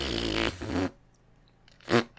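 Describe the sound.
A voice blows a long, buzzing, fart-like raspberry through the lips, sputtering for nearly a second, then after a pause adds a short, sharp second burst, demonstrating a beatbox technique.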